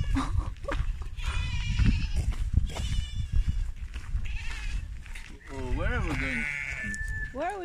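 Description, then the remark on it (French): Black-and-white lambs bleat repeatedly amid a busy farmyard din, their quavering, high cries overlapping throughout and growing loud toward the end, with a final long wavering bleat. “Ah, il y a des bébés moutons qui sont trop choux, noirs et blancs.”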